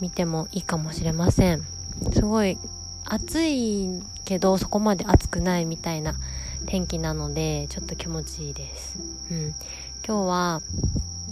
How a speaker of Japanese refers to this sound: ちょうどねスズムシが鳴いてる感じなのでそれが入ってるかなっていうふうに期待しておりますそうスズムシもいるんですけど時折ねセミも鳴いてて夏と秋がちょうどこう入れ替わっていくような、うん、タイミングなのかなっていうふうに思います